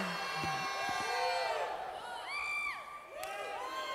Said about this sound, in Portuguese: Dê um brado de louvor ao Senhor e diga aleluia!